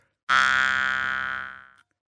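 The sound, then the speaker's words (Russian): A single sustained jaw harp twang, low and buzzy with a diffuse, airy tone, made by mouth resonance alone without the voice, ringing steadily for about a second and a half before fading out, played alone with no talking. “распыленный звук, да?”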